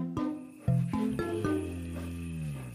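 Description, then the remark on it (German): A deep, rumbling brown bear growl with several rough pulses over a few seconds, fairly loud, with no one talking. “Braunbären brummen.”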